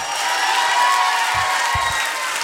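Sustained audience applause with cheering at Active Radio's 10th anniversary celebration, a dense steady wash of many hands clapping at a constant loud level, with a few low thumps underneath.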